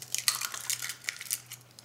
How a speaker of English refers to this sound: He starts with the batter by cracking three eggs.